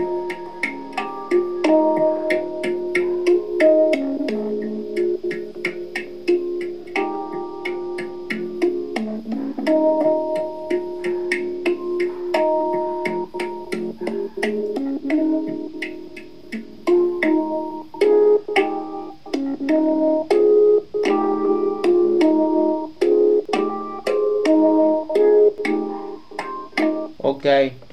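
A handpan plays a flowing melodic passage of ringing, bell-like metallic tones, notes struck in quick succession and sustaining into each other, steady and fairly loud throughout.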